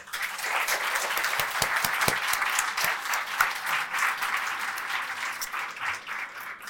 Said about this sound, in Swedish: Ge dem en varm applåd.